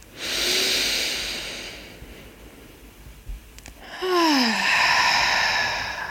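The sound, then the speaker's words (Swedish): A final deep, airy breath drawn in during a guided breathing exercise, a brief pause, then a long audible exhale that ends in a soft, falling voiced sigh. “Och vi tar en sista riktigt djupt.”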